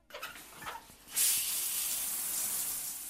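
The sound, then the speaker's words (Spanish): A shower turns on after a few faint clicks and knocks, then water sprays steadily in a broad, loud hiss that continues to the end. “Una ducha rápida y devoramos a toda prisa un café y una tostada y nos vestimos.”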